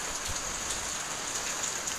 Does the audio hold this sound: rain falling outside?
yes